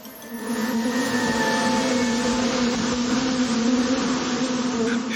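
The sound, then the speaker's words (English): A dense, steady swarm of bees drones loudly and continuously, a thick buzzing hum with a strong low tone that swells in after a brief quiet start and holds without any voices. “wow, they made the Fakist logo out of honey. Amazing. It's like a 3D printer that can sting you.”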